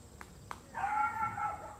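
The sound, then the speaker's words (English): A dog gives two quick, short yips and then a sustained, drawn-out howling bark lasting about a second, clear, with no one talking over it. “But while verses, the dog is saying amen.”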